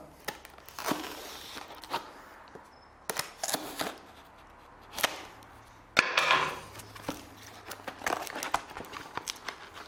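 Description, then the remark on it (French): A parcel received from YouTube, containing a trophy, is unwrapped: bursts of crinkling, rustling packaging and sharp tearing and snapping sounds, irregular and moderately loud, with brief pauses between handling movements and no talking. “Alors aujourd'hui, une vidéo un petit peu spéciale parce que je viens de recevoir ce paquet de YouTube que j'attendais quand même depuis quelques mois.”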